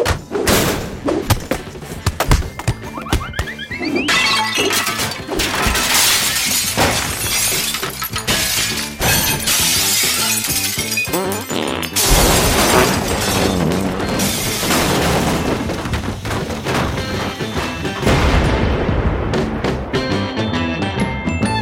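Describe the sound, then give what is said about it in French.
A loud, nonstop barrage of destruction as a fridge, cardboard, a window pane and a wardrobe are smashed, with a fart and dynamite blasts: glass shattering, heavy objects crashing and splintering, dull thuds and booming explosions piling on top of one another for about twenty seconds, with no talking. “Et puis, pour être certain que tout cela a bien fonctionné, je vous ai préparé un petit bouquet final, genre frigo, carton, vitre, prout, armoire, dynamite.”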